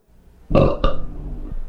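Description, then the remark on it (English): A loud belch erupts abruptly with a second guttural burst right after, then rumbles on for about a second before cutting off, made as a rating while tasting beers. “Was that a belch?”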